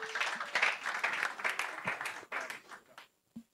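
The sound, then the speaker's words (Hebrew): A burst of audience applause for a speaker from NextStage taking the stage, many hands clapping in a dense, crackling wash that fades out over a few seconds, ending with a couple of stray claps. “קחי את זה מפה, תנו לה כפיים, זה בשבילה הכל.”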